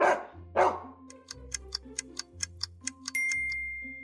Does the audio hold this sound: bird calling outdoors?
no